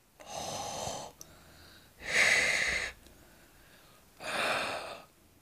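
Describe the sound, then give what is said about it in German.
Three loud, raspy breaths of air rushing through a throat narrowed by the tongue or soft palate, as in breathing before singing, each lasting about a second with short pauses between, with no talking. “Hören wir Nebengeräusche in der Atmung, dann ist immer die Zunge oder der weiche Gaumen in irgendeiner Weise mit im Spiel.”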